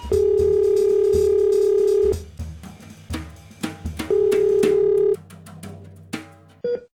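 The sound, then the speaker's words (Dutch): A steady telephone dial tone hums for about two seconds, then brief clicks and dialing noises lead into a single long ring of an outgoing call to an intensive care doctor at Medisch Spectrum Twente, ending in a short beep. Nobody speaks. “En we gaan hem bellen voor het antwoord op de vraag.”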